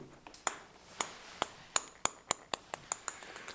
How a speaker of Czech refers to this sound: Tak teď tu skáče pingpongový míček.